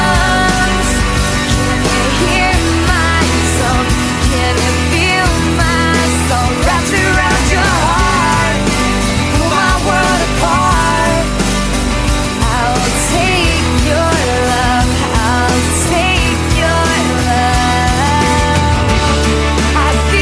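A loud, full-bodied song plays continuously, with a sung vocal line riding over dense guitars, bass and drums at a steady volume throughout, and no one talking over it.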